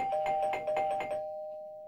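A doorbell rings with a quick burst of bright, repeated chiming strikes over a steady electronic tone, then the tone hangs and fades out, with no voices.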